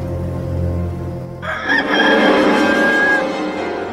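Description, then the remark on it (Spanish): A rooster crows once, loud, its drawn-out call rising at about a second and a half and holding to the end over a low background rumble. No one speaks. “Y al instante cantó un gallo.”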